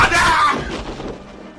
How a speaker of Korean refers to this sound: 주먹이 날아갔다. 경비대원은 정신을 잃고 나가 떨어졌다.